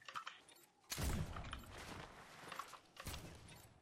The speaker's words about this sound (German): Noch der letzte Schuss.